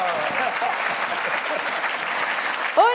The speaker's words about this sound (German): Applaus